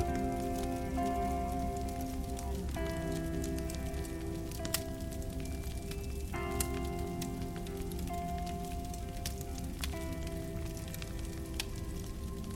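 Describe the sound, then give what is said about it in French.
A wood fire crackles steadily in a chalet fireplace while heavy snow falls outside, a soft continuous hiss broken by a few sharp pops, with a low steady hum underneath and no voices. “plus aucun bruit ne vient perturber la douceur de celui du feu.”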